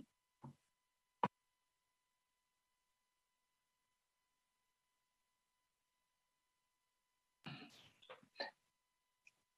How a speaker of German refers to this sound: Entschuldigt, ich muss kurz husten.